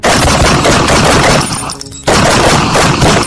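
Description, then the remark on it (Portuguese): A loud shootout sound effect for a shootout in the Ermida area of Divinópolis: dense, rapid bursts of gunfire crackling almost without pause, briefly dropping off for a moment midway before the volley resumes at full intensity. No voices are heard. “O tiroteio assustou populares, mas felizmente não houve feridos.”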